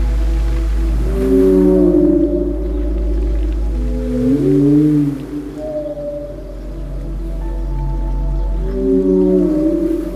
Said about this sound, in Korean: 저 멀리 들려오는 소리가 들리시나요? 바로 고래들의 노랫소리입니다. 고래들은 바닷속을 유유히 헤엄치면서 우리 인간의 귀에는 들리지 않을 만큼의 음역대로 저마다 노래를 부른다는데요.